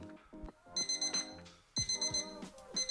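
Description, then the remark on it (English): An alarm clock rings loudly in repeated rapid bursts of bright, high electronic beeps, pausing briefly before starting up again, with a musical melodic tone running underneath. “Ah, uh, why is your alarm going off so early again?”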